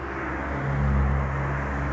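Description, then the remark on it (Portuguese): A steady low rumble of passing street car traffic heard from an apartment balcony, with a broad engine hum swelling briefly in the middle before settling back to a constant drone. “esses barulhos de carro é porque eu estou na sacada fumando.”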